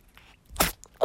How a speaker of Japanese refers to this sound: あくしゃみした。うわちょっと鼻水飛ばしたね。